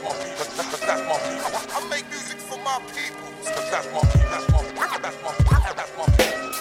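A French rap track opens with turntable scratching over layered music, then a deep, punchy kick drum beat kicks in halfway through, loud, with no clear vocals yet.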